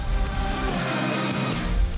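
A steady low rumble of a car interior, with continuous engine and road noise filling the background and no voices present.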